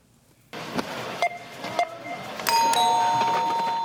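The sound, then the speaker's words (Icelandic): A mechanical shop cash register clatters as keys are punched, with a couple of brief dings, then its bell rings out loudly and lingers to the end. Clear, with no talking. “Þetta er búðakassi Þetta er búðakassi, akkurat”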